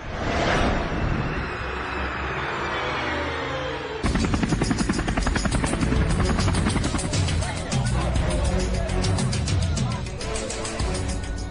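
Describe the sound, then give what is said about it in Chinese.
A helicopter assisting FBI agents and police in the search for hijacker D. B. Cooper flies by with a loud, steady roar, opening with a rushing whoosh before its rotor settles into a fast, rhythmic thumping chop that continues throughout. “几十位特工和警察在直升机和空中侦察机的协助下展开了搜索。”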